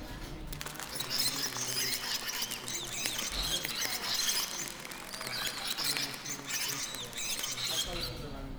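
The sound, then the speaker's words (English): A dense chorus of calls from a bat colony's nocturnal activity, recorded with bioacoustic monitors: countless high, rapid squeaks and chitters overlapping continuously, busy, with a faint low rumble underneath and no voices. “I record the nocturnal activities of a colony of bats in the territory using bioacoustic monitors”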